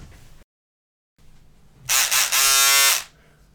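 An electric buzzer sounds loudly for about a second: a couple of quick rasping pulses and then a steady, harsh, bright buzz that stops abruptly. A faint low hum sits underneath, and no one speaks.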